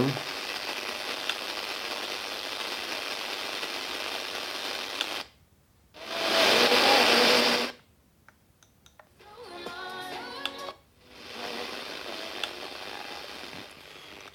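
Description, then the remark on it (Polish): Steady static hiss from a radio receiver switched to FM mode, which cuts out briefly, returns as a louder surge of rushing noise, then comes back fainter with some thin whistling tones before the even hiss settles again. “Pewnie, proszę Państwa, powiedziałem, będzie grało. Jak na razie to szumi.”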